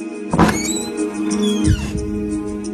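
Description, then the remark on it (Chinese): A door-closing sound effect: a loud, sharp thud, then a creaking, squealing sweep that ends in a deep, heavy thump as the door shuts, over a steady low hum. No one speaks. “就像我们刚刚听到的那个音效，可能有的朋友听到这个关门声，已经有点儿条件反射了啊。”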